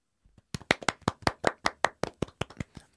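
Steady hand clapping, about a dozen sharp, crisp claps in a quick, even rhythm, starting with a couple of soft taps and then holding a fairly loud level. No voices.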